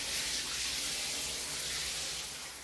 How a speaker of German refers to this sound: Den Wasserhahn aufdrehen und unter die Dusche stellen, so oft und so lange man will.